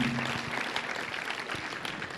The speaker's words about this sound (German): Gebt ihnen einfach nochmal einen Applaus und habt sie ganz arg lieb.